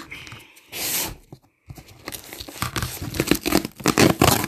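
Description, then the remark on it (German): A cardboard package being torn open: a loud ripping burst, a brief pause, then a long run of crinkling, tearing and scraping packaging noises in uneven bursts, with no talking. “Ähm, jetzt müssen wir gucken, wie das aufgeht.”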